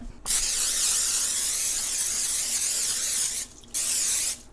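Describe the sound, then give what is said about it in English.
A Pam cooking oil spray can hisses in a long, steady burst of about three seconds, then a short pause and a second brief spray, fairly loud with no talking. “Do you want Pam olive oil? Yeah, let's just do Pam, and yeah. then we don't need anything. We'll just spray it.”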